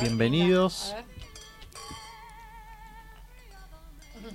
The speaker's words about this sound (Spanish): Se escuchan las copas de cristal.